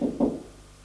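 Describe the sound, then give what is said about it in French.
A man knocks on a door along a first-floor corridor: two dull, low knocks in quick succession, then a quiet hum fills the rest of the moment; no voices. “Il frappe à une porte.”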